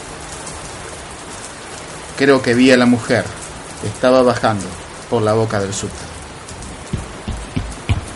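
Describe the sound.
Steady rain patters down on a street, a constant hiss of drops filling the whole scene while a man speaks over it in short phrases.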